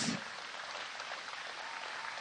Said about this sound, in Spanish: Los aplausos a Jesús.